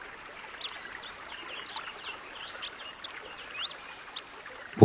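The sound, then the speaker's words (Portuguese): Birds sing in a steady series of quick, high chirps and whistles over a constant soft rush of flowing water from a calm, shallow creek, heard from a bridge, with a brief louder knock right at the end. “Do alto da ponte, escutamos e admiramos a beleza do riacho e da paisagem fundo pássaros cantam.”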